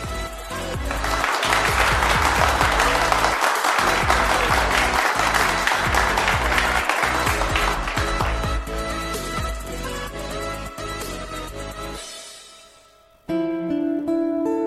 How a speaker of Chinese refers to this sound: 鼓掌，原来是这样， 就是这样。